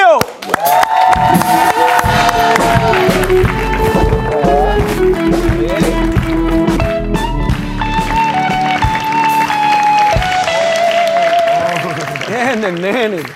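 An audience claps and cheers steadily for about thirteen seconds, a dense wash of applause with loud whoops and sustained tonal sounds riding over it before it tapers off at the end.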